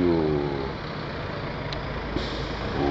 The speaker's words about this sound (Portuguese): Parece que o caminhão baixou um pouco a bola, achei que ia ficar ligadão aqui do lado, ia ser mais complicado.